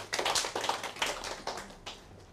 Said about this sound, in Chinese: 好，那我们就以热烈掌声来欢迎诶潘子铭教授。